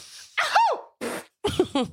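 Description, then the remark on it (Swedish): A person imitates their mother's loud sneeze with their voice: a sharp, explosive burst followed by a few shorter breathy, sneeze-like bursts in quick succession, loud. “Min mamma nyser så här.”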